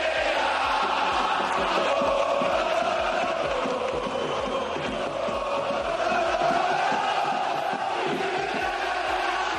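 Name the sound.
football stadium crowd chanting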